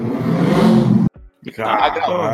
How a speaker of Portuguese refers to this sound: olha, peraí, deixa a moto passar aqui.